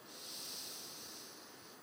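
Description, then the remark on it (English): A single long, deep breath drawn in, a soft airy rush that swells and then eases over about two seconds, with no talking. “And I take a deep breath in.”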